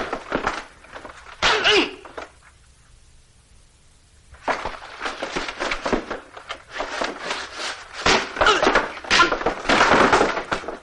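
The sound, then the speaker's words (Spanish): A scuffle between two men: heavy thuds, bumps and whacks in rapid, irregular bursts, a brief lull, then another long stretch of loud clattering blows and jostling, with some grunting. “el hombre comienzan a pegarse”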